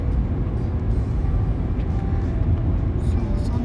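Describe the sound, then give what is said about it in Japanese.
Steady low rumble of a car interior while driving out to buy supplies on a hot day, with the air conditioning on, constant road and engine noise filling the background and a voice speaking over it throughout. “買い出しに行く車内から、ひたすら「店主のさえずり」をお届け”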